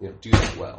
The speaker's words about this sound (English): Sorry, that's my chair.